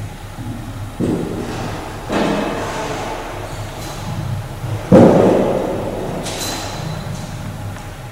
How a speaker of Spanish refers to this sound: Así suena el interior de la pirámide roja de Dashur una pirámide, la primera pirámide prácticamente de caras lisas descubierta en Egipto,